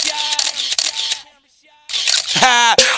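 A burst of camera shutter clicks with a bright, hissy whir, pausing briefly into near silence before another loud round of shutter sounds, joined by a short rising and falling tonal sweep.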